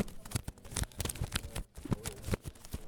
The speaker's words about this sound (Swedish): Ja, nu har vi hamnat här eh, bland eh, skivbackarna. Här bläddras det för fullt. Man, man kan riktigt höra hur det låter i